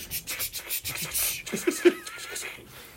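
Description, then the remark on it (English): Muffled, padded clapping from gloved hands: a quick run of soft, dull swishing claps with little snap, fading into a faint rustle toward the end. “the applause would be louder, but I'm wearing gloves.”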